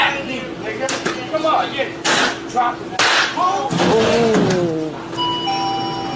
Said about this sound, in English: I don't mean to interrupt in the middle of the action, but that slap, that slap is not been edited. It is not a cartoon slap because that is exactly what that sounds like.